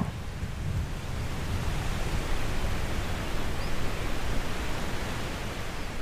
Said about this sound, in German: merkst aber, wie der Wind auffrischt. und mehr und mehr dichte Wolken den Himmel bedecken.